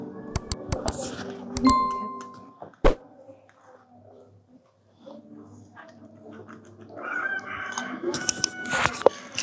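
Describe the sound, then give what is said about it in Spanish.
Loose chickens cluck and a rooster crows amid outdoor commotion, with scattered sharp knocks and rustling. Brief bursts come and go over about ten seconds, with louder noisy activity near the end. “Ya están las gallinas, mis primas, Tómales ahí a mis primas que andan sueltas horas.”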